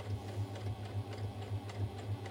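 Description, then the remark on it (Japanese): A sewing machine runs steadily, making an odd sound because its bobbin (lower) thread is running out; its low motor hum pulses in a quick, even rhythm with faint ticking clicks on each stitch; no one speaks. “なんかミシンが怪しい音してきてやだやだ”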